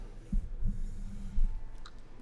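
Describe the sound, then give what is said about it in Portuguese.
Dull thumps and scraping rustles as a microphone is handled and repositioned, with a few soft knocks and a faint click, no talking. “Pequeno ajuste de microfone.”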